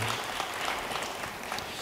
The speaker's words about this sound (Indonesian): Yang percaya beri tepuk tangan yang baik bagi dia.